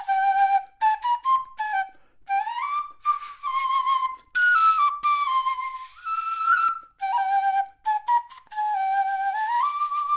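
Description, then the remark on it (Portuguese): A traditional pito doxi flute, the flute of the traditional Chiloli, plays a bright, breathy melody alone, in short rising and falling phrases separated by brief pauses, clear with no voices. “E é precisamente da flauta, conhecida tradicionalmente no chiloli como pito doshi, que vamos hoje falar e ouvir.”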